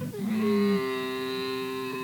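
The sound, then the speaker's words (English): A camel lets out one long, drawn-out bellow, a loud, droning groan with a steady buzzy tone that holds for about two seconds with no other sounds around it. “what animal is it? Camel. absolutely right.”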